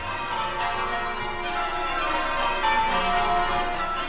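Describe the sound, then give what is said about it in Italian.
Several bells ring together in a continuous, overlapping wash of metallic tones, holding a steady moderate loudness throughout with no voices present. “Sentivo le campane.”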